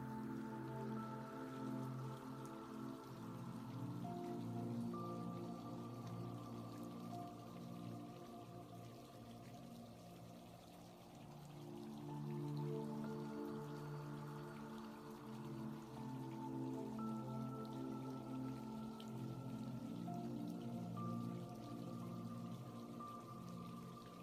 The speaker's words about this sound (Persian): صدای آب رودخانه رو میشنوین و شناور شدین و چشماتون رو بستین از صدای محیط اطراف دارین لذت میبرین